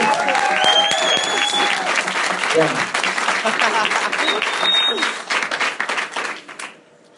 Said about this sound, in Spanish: ese aplauso. Lo vamos a sacar